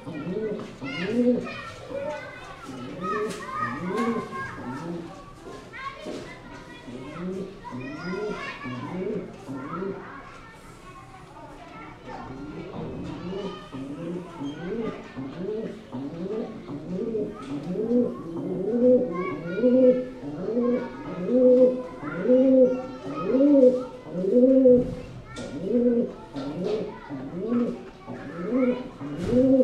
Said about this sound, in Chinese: 现在是尼泊尔时间五月二十二号八点二十分，我在加都，想给你听清晨的声音。